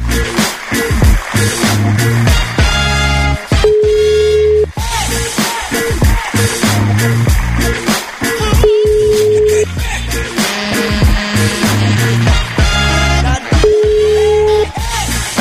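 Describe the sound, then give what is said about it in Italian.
A phone ringback tone repeats unanswered, three steady one-second tones spaced several seconds apart, heard over loud, busy background music. “ma figurati se prende il telefono.”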